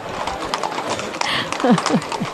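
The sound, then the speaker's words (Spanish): Horses of riders in a procession walk along Rodrigo de Triana street in Triana, having left San Jacinto. Their hooves clop on the pavement in a loose, steady rhythm against a busy outdoor background, with a few short descending chirps near the end. “Sí, estaba, estaba ahora mismo parado, pero han muerto andar los caballos, volvemos a tener el mismo problema de antes.”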